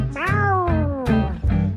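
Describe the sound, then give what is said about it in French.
A female cat gives a long, drawn-out meow that slowly falls in pitch, followed by a couple of shorter mews, fairly loud over a low, steady background rumble. “Miao miaou, miaou, miaou la chatte.”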